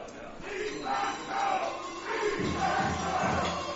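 A big stadium crowd at an American football game in Kempten roars and chants steadily, with cowbells clanging throughout the noise. The din swells and dips in waves and fills the whole stretch without a break.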